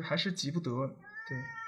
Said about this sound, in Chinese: 就是不好意思，我我这个猫这个一一直在叫，就是能听，还要起床了，